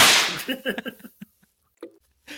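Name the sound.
whip crack sound effect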